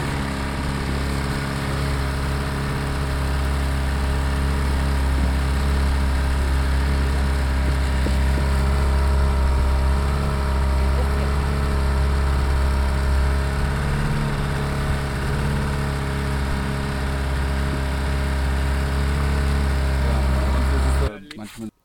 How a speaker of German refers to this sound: Dieses kleine Boot, mit dem wir da gefahren sind, was ihr da gerade gehört habt, möchte ich auch noch kurz beschreiben. Das ist eigentlich relativ unspektakulär. Das sind meistens so kleine Holzboote